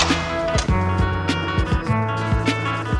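A heavy metal prison cell door being opened, with a series of loud ringing clanks and rattles from bolts and hinges over a resonant metallic hum. No voices.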